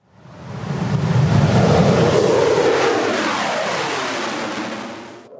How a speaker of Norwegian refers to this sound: Dette er lyden av Russlands nyeste kampfly, en MiG-35, som snart vil være å se i nordområdene.